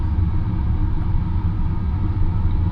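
A deep, steady rumble of an electric train, the Rapid Marine Liner bound for Okayama on the Seto-Ohashi Line, fills the whole stretch as it waits to depart from the station platform. It is a constant low drone with a faint mechanical hum and no voices or breaks.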